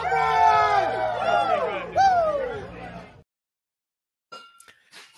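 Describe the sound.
A large Eagles football crowd roars and chants together, many voices swelling loudly for about three seconds before cutting off to silence, followed by faint, scattered noises.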